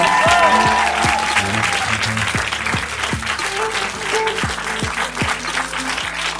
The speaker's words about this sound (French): Mesdames et messieurs, il est temps de faire un tonnerre d'applaudissements à notre premier invité